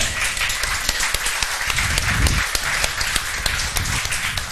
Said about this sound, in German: Applaus für den zu spät -Kommer.